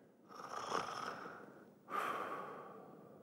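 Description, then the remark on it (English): A voice imitates the slow, sleepy breathing of a woman falling asleep on the other end of a late-night phone call: two long, airy breaths, the first drawn out over a second and a half, the second starting sharply and trailing off, fairly quiet. “and she would fall asleep on me.”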